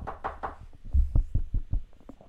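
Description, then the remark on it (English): Rapid knocking on wood for luck, a quick burst of sharper raps followed by a string of about six dull, low thuds in a steady rhythm, fairly loud, with no talking. “Provided, knock on wood, knock on wood right now.”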